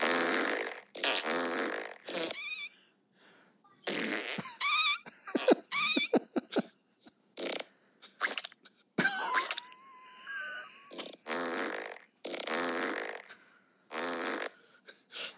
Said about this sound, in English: It's one minute and two seconds of uh, funny fart sounds on uh, on YouTube.